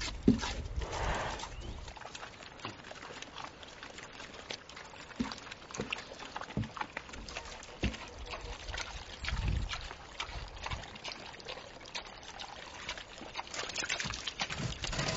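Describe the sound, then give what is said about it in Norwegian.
Pigs shuffle and squelch through wet, slushy mud right around the houses, with soft splashing, sucking footsteps and occasional low grunts in a steady, busy outdoor scene. “Men, for så vidt så trives jo griser i denne gjørma, men det er ikke alltid de er eh, koselige å se på, nødvendigvis.”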